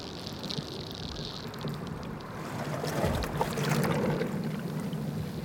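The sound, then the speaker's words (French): Gentle lapping of water flowing underground beneath city streets, continuous and soft, with small splashes and trickles that grow slightly fuller toward the end, with a faint airy hiss and no voices. “J'entends leur doux clapotis.”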